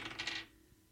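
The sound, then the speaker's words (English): Dice clatter briefly across a hard tabletop in a quick burst of bright rattling hits, then settle into quiet within half a second, with no voices. “Come on, Dice. We ain't got time for this.”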